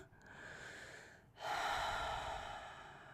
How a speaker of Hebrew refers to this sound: כן. אז ההפך מזה, שזה נשימה איטית ועמוקה